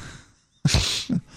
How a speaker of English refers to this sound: Yeah, you you just snorted a little bit. I did.